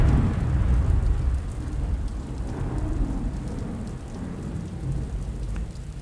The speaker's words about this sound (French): Il faisait froid, la pluie était épaisse et lourde. Des éclairs immenses déchiraient le ciel sombre et de terribles coups de tonnerre claquaient dans l'obscurité avec la puissance d'une artillerie en campagne.